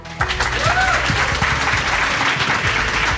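A large audience breaks into loud, steady applause that starts abruptly and continues throughout, dense clapping with a faint whistle or cheer rising briefly near the start.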